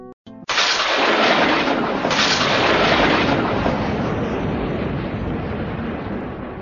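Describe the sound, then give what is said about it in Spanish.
A loud thunder crack bursts in suddenly and rolls into a long, heavy rumble that fades only slightly over several seconds, with no voices. “El devoto debe concentrarse en su corazón, imaginando que allí hay rayos y truenos.”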